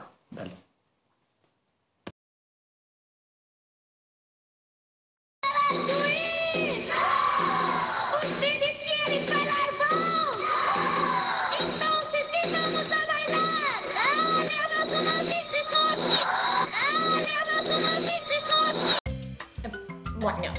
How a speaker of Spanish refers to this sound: Eh, que si reproducís el puente al revés, se escucha El Diablo es Magnífico.